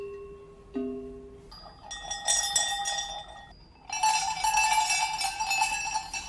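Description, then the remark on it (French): Metallic bells around a lead horse's neck on the old tea road clank and jingle in an irregular, overlapping rhythm, starting with a few lower clangs and building into bright, dense, sustained high ringing; recorded on a mobile phone; no voices are heard. “Ici, sur l'ancienne route du thé, le cheval de tête avait des cloches autour du cou.”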